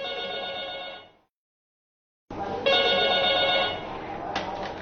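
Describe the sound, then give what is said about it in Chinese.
A telephone rings with an incoming emergency call at a police station, two loud bursts of a bright, buzzy trilling tone with about a second of silence before ringing again. No one speaks. “事情还要从一个普通的报警电话讲起。”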